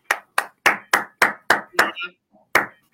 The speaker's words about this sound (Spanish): Un aplauso.